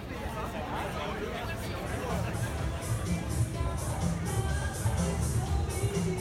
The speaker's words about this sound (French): Entre les bruits confus des Parisiens et des Parisiennes qui sirotent leurs apéritifs en discutant, entre les musiques diffusées négligemment par des enceintes, entre les gouttes de pluie qui se mettent à tomber,